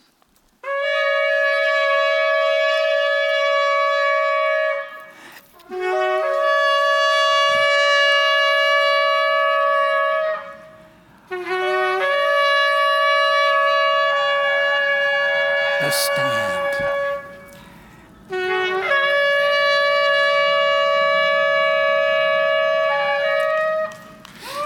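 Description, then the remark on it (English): Four long, loud ram's horn blasts sound in succession, each a steady, bright, brassy tone held for several seconds with brief pauses between, dominant, with a faint voice briefly underneath. “When the people heard the sound of the ram's horns”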